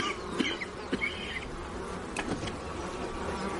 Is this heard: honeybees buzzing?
yes